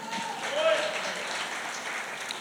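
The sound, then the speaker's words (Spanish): A church audience applauding steadily during a Spanish-language sermon, a dense, even wash of many hands clapping that holds at a constant level for a few seconds. “Dale ese aplauso al Señor.”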